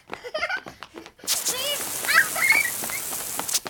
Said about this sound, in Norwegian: Alle løper til vannflaskene sine og spruter vannet rett i øyet på trollet.